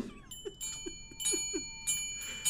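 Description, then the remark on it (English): Bells ring in repeated shimmering bursts over sustained ringing tones, with soft low ticks keeping a steady beat underneath. The sound is moderately quiet, and no one speaks. “hey, whenever I hear bells now, no matter what bell it is, I'm just gonna be like, hot chocolate!”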